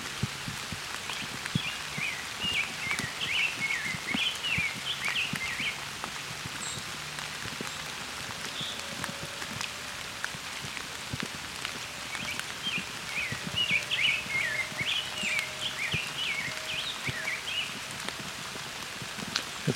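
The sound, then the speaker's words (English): A rose-breasted grosbeak sings two sweet, warbling phrases, separated by a pause, over the steady patter of rain falling on surfaces. “But I've got a rose breasted grosbeak here singing.”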